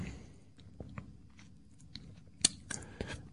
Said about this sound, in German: Kannst du mich nicht mal in Frieden schlucken lassen? Ach, du, du, war, du hast gerade geschluckt.